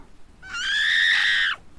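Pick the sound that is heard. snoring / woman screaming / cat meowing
woman screaming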